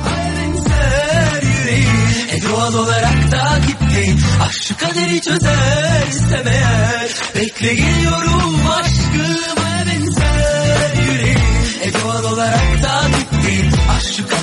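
A Turkish pop dance remix plays loud and steady, with a thumping four-on-the-floor beat, bright synth layers and a sung melody running through the whole stretch without pause.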